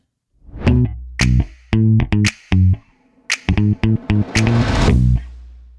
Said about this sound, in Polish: Bum tarara, lubię tą muzykę. Bum tarara. To od czego zaczynamy? Może od tego, że naprawdę mi ta muza weszła. Zaczyna mi się kojarzyć z tym miłym momentem, kiedy nagrywamy nasz podcast i kiedy e, czuję się naprawdę zrelaksowany.